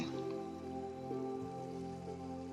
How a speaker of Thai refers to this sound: ในวันนี้ฝนก็ตกลงมาเยอะ ความเย็นก็เกิดขึ้นในสถานที่